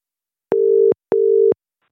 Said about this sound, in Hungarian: Kapi Gábort hívjuk itt az adventi hívásban. Remélem, hogy felveszi a telefont.